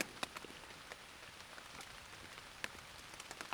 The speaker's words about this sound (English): And the dramatic effect of this storm is perfect.